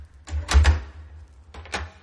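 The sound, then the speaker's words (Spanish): A door shuts with a couple of dull wooden thuds and clacks, followed a moment later by a second, softer latch-like knock. Strong low rumble underneath; no voices. “Cierra la puerta.”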